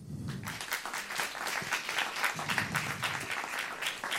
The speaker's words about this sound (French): que vous pouvez applaudir.